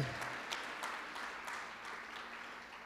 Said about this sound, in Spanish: Dale ese fuerte aplauso. Todos los hijos de Dios. Amén.